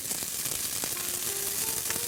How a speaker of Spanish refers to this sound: Y después de que este, tengamos la calabacita ya lista, vamos a saltear ligeramente nuestros elotes. Vamos a poner nuestros elotes. Pueden ser elotes de lata, pueden ser elotes precocidos, congelados, lo que tengan a mano, lo que ustedes prefieran.